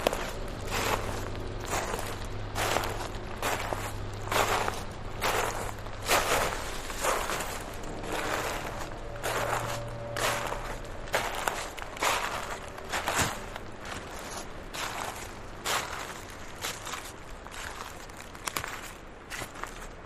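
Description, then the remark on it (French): Steady footsteps crunch and swish through a carpet of soft, damp leaves at a relaxed walking pace in a mid-mountain forest after rain, each step clearly audible, with a faint low hum beneath and no voices. “Pour l'instant, un tapis de feuilles humides au son soyeux vous accueille.”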